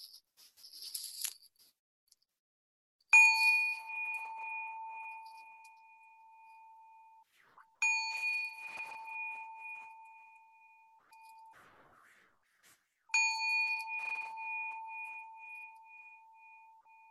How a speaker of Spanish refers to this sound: Mm, y al recibir el sonido de la campana, pueden abrir los ojos, tomar dos o tres respiraciones profundas.